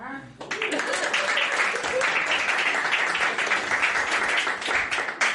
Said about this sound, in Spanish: Aplaudan.